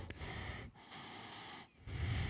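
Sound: imitated heavy angry breathing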